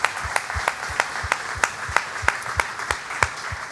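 Applause in a steady, even rhythm, about a dozen sharp claps in just under four seconds, moderately loud with no voices over it.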